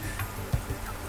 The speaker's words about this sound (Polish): y, off the road. Y, to jest dźwięk, jeżeli y, poruszamy się po mapie i zejdziemy z y, obszaru, po którym biegnie jakaś ulica, to on się odzywa.